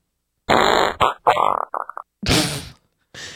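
A string of loud fart sounds: a long, buzzy blast, then shorter sputtering bursts and quick pops, followed by two more breathy blasts after brief pauses. No one speaks.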